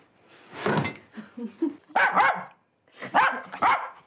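dog barking

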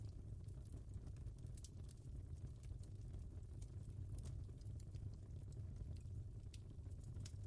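crackling fire

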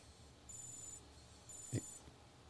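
wristwatch alarm beeping

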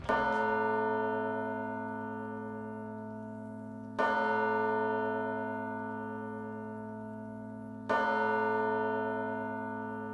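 church bells ringing

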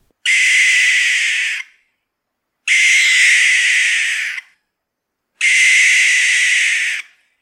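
barn owl call

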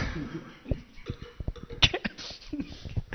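coughing

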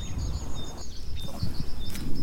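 spring birdsong

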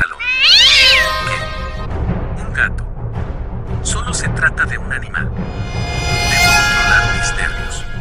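cat meowing and yowling

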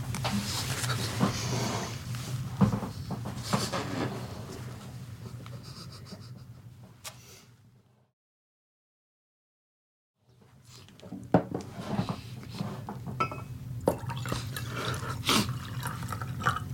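fetching water

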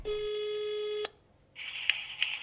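telephone ringing tone

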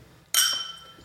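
wine glasses clinking

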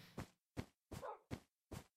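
dog barking in background

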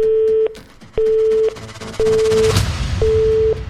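telephone line tone

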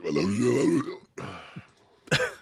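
burp

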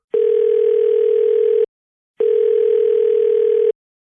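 telephone ringing tone

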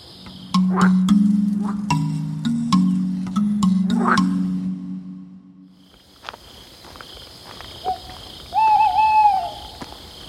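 tawny owl hooting

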